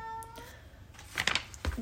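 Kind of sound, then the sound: animal, cat meowing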